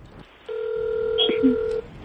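A phone line tone sounds as a call is placed to the speaker's wife: one steady, mid-pitched electronic hum holding for over a second, with a few faint short blips layered over it.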